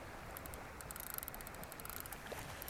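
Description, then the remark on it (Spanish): Light water splashing and sloshing from someone playing with small fish in the water, a steady run of small, quick splashes as if hands are stirring shallow water, fairly quiet, with no voices. “Estoy aquí jugando con los pececitos.”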